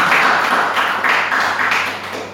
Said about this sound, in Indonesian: Kita berikan tepuk tangan terbaik buat Tuhan Yesus.